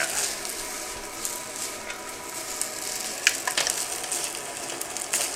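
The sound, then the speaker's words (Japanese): Frozen fried rice (chāhan) sizzles steadily in a pan as it is being cooked, recorded on a wireless microphone: a constant bright hiss broken by a few sharper crackles and scraping stirs, with no one talking. “冷凍チャーハンねこれ適当にやるだけでちゃんとパラパラになるんですよねこれがほんとすげえなあちなみにねこのマイクをワイヤレスにしたことによってこのチャーハン作りながら録音できるようになったんだよね”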